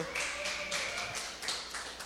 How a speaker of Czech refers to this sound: jak jsem řekl slovo káva, tak je to jasný, že začnem začnem tleskat.